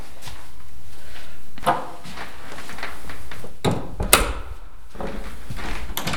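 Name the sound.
door being opened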